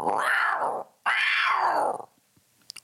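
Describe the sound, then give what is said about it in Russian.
A woman imitates the roar of Simba the lion twice in a row, two loud, rising-and-falling growls, followed by a few faint, quick high chirps imitating a bird. “она умеет рычать как симба и чирикать как птица”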